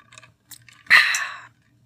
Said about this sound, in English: I'm going to take a nice glass of water and I'm going to drink some of it.